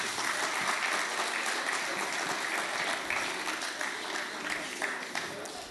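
Steady audience applause fills the whole stretch, a dense, even wash of many hands clapping at once, holding loud throughout and easing slightly toward the end.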